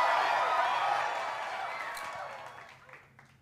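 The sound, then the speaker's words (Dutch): A brief burst of applause, dense hand clapping that starts full and gradually fades over a few seconds, with a faint murmur of voices underneath. “Ja, ik geef echt applaus hiervoor.”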